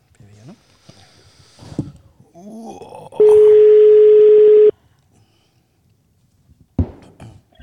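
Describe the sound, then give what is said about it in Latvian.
A single loud, steady telephone ringing tone sounds for about a second and a half as a call is being placed to a representative from Iecava, with people talking before and after it. “Un tagad mēs zvanīsim iecavas pārstāvēju”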